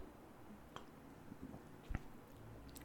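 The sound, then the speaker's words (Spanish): Quiet sipping of 2X beer from an easy-open bottle in Monterrey: a few soft, wet mouth sounds and a small gulp spread over a few seconds, with no one talking. “Y pues, déjenme le doy un trago.”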